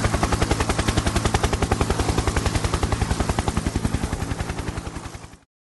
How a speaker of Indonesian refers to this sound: Helikopter kepresidenan pun terbang menuju Istana Bogor.